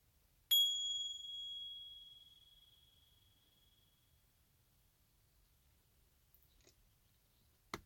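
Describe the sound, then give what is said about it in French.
A meditation gong is struck once, its bright, clear tone ringing out and slowly fading over several seconds, with a couple of faint clicks afterward. “Et quand je me sentirai prêt, je pourrai, après le gong, rouvrir les yeux.”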